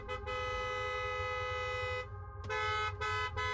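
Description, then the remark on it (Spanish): A truck horn blares in long, sustained honks, cutting out briefly and then sounding again in several repeated blasts over a low engine rumble, from a truck directly behind a stopped car. “Y esta persona seguía tocando la bocina y haciendo luces.”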